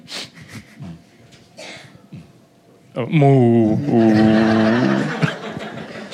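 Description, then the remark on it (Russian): After a few seconds of soft breathing and murmurs, people let out a long, loud, low mooing sound with their voices, imitating a cow in the Russian way, and it trails off near the end. “У нас по-другому мычат.”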